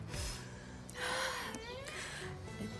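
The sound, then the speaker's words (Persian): A woman, the character Füsun in a radio drama, bursts into tears with sharp gasping intakes of breath and strained, wavering sobs over about three seconds. No words are spoken. “اینک بشنوید ادامه این نمایش رو چی شد فوسون؟ چرا یه زدی زیر گریه؟”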